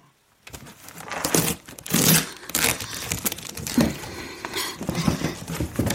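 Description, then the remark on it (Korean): Packing tape is torn off the last unopened cardboard moving box at home at night in several loud, rasping pulls, with crinkly rustling of cardboard between the rips and no voices. “그날 밤 나는 사다리를 타고 다시 옥상에서 내려와 고양이들이 있는 골목을 지나쳐 집으로 돌아오자마자 그때까지 열지 않았던 마지막 이삿짐 상자의 테이프를 뜯었다.”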